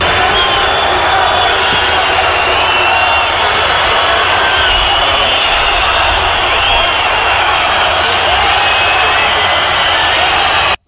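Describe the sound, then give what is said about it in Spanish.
A large outdoor crowd at a parade roars steadily, with a dense wash of booing and scattered shouts calling for resignation as Sánchez, head of the Spanish government, arrives, holding at full strength for about eleven seconds before cutting off abruptly. “Cuando Sánchez ha llegado, se han podido escuchar abucheos de los asistentes, además de algunos gritos de dimisión.”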